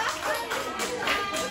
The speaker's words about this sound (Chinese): 感谢主，给旁边人一个热烈的掌声。大家说欢迎你回家。